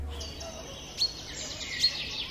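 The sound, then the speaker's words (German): Birds twitter and chirp continuously in high, bright trills, with two sharper calls standing out briefly over a soft, low background hum. No voices are present. “Und deshalb würde Meeresrauschen und Vogelgezwitscher helfen”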